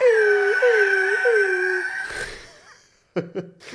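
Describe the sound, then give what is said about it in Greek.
A voice imitates an eagle's cry, used as a sample in a song: one long, loud, wavering screech lasting about two seconds. A breathy rush follows, then two short, sharp vocal bursts close to the microphone. “Ένα άλλο είναι κάτι που ακούγεται σαν αετός που κάνει...”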